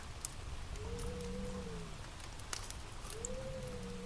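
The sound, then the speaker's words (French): A wood fire crackles quietly in a fireplace, with scattered sharp pops over a steady soft hiss and two brief, low whistling tones as the logs burn. No one speaks. “Avez-vous déjà remarqué que, selon le bois utilisé, le son du feu de cheminée n'est pas le même”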